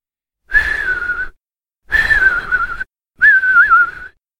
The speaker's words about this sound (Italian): non era propriamente un fischio, ma uno zufolio sordo, piuttosto, a fior di labbra, sempre con la medesima cadenza.